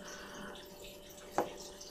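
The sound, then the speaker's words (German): A thin trickle of genever being poured into a glass, a soft, steady splashing, with one brief clink or splash standing out near the end. “Ganz anderes, ein bisschen mehr noch, ne? Ja. Hm? Ja, ja, das reicht.”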